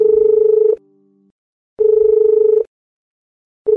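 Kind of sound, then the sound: signal or alarm, telephone ringing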